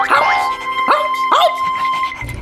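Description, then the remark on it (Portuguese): A dog barks three times in quick succession, fairly loud, over a steady background of sustained musical tones. “Ah, e tem também o cachorro.”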